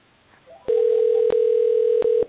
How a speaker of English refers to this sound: Okay, here we go. I am now dialing.